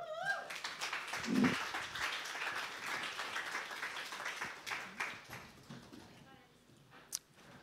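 A crowd breaks into steady applause welcoming a guest onto the stage: dense clapping from many hands that swells early and then gradually thins out, with a few scattered claps and a brief whoop near the end.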